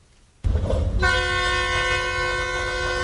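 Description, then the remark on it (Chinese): After a moment of quiet, a freight train loaded with cargo bound from China to Kazakhstan rumbles in loudly at the start of the Longhai Railway, the eastern end of the New Eurasian Land Bridge in Lianyungang, China. A sustained, multi-toned train horn blares steadily over the low rolling noise of the rail cars. “一辆火车满载货物，将要从中国运往哈萨克斯坦。”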